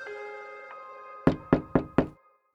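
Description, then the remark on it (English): Four quick, firm knocks on a wooden front door in the morning, in an even rhythm, brisk, insistent and loud. A sustained musical tone lingers faintly underneath before fading out. “The knocks at my front door the next morning are brisk and insistent.”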